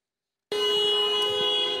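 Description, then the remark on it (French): A horn on one of the Enedis trucks leading a protest march in Marseille blares suddenly and holds one loud, steady, brassy blast without a break, drowning out everything else. “En tête du cortège, des colonnes de camions d'Enedis, un secteur très mobilisé.”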